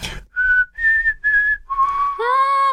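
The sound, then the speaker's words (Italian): Someone whistles a brief four-note melody, each note held steady and clear, the last one longest and sliding slightly upward. Fairly loud, with no talking. “Allora facciamo così, io invece che non so fischiare lo dirò così.”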